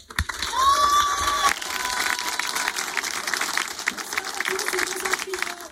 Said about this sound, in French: Applaudissements pour elle.